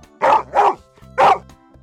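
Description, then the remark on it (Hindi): A dog named Sultan barks three times, loudly, at night at a farmer's house on hearing bears approach: two quick barks in a row, a short pause, then one more. No one speaks. “कुछ दिनों बाद भालू अपने साथ एक और भालू को लेकर एक अंधेरी रात में किसान के घर पहुंचा सुल्तान ने जब भालू के आने की आहट सुनी तो भौंकना शुरू कर दिया”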